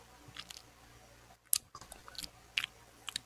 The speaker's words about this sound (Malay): Sedap pula susu ni eh. Eh, macam sedap je kau minum air tu